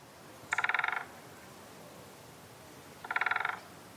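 Two short, rapid drum rolls of a great spotted woodpecker hammering in spring, each lasting about half a second and spaced a few seconds apart, crisp against a quiet background.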